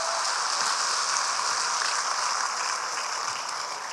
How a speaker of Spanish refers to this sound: Denle un aplauso a las mujeres que están aquí. Maravillosas.